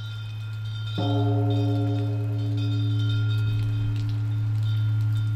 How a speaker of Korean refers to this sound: 그 토피안사라는 사찰에서 음, 범종 소리와 비바람 소리 그 풍경 소리 그 소리를 들으면서 무거운 주제인 것 같은데 카르마라는 업이라는 제목을 생각하게 되었습니다.